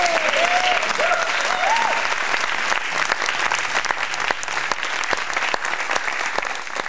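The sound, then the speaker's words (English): A correct-answer sound effect: a burst of loud, steady applause and cheering fills the whole stretch, with a few quick rising whistle-like tones near the start. “Give him the correct answer sound.”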